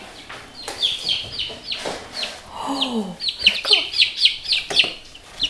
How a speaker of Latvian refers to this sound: Kāda tur ir tie zem lampas čiepstētāji?